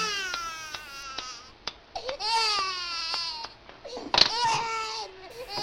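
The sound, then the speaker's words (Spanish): A baby in a cave cries in a steady series of high, wavering wails with short catches of breath between them while a woman busily cooks, fairly loud and with no other voices. “La mujer se afanaba en cocinar mientras el bebé no dejaba de llorar.”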